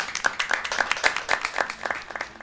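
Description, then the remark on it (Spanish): A short burst of clapping, quick and fairly steady, like a small group applauding, with sharp hand claps following one another for a couple of seconds. “Primero que nada, el aplauso va, creo yo, porque a fin de cuentas el negocio está asegurado.”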